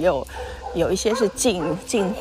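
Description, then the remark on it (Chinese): Stray dogs bark repeatedly at a market in short, yelping bursts at a moderate volume, overlapping with a person talking steadily throughout. “哇，现在有野狗在叫。”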